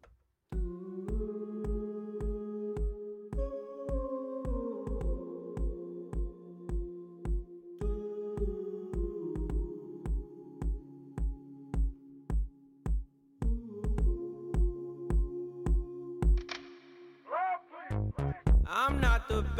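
A slow pop love song plays loudly, with a steady thumping kick drum under warm sustained chords, and a sung vocal begins in the final seconds.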